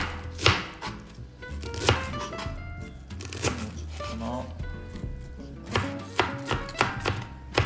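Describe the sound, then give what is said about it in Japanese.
A knife chops rapidly against a cutting board as cabbage is shredded into fine strips, sharp thuds in quick uneven bursts, with faint background hum and brief pauses between runs of cutting. “よしこんなもんでしょう千切りキャベツ出来上がり”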